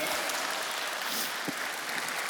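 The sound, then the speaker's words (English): A crowd applauds steadily to celebrate a shown picture of three adopted children, the clapping forming a dense, even wash of sound at moderate volume with no talking over it. “And uh, over there, yeah, you can clap for that.”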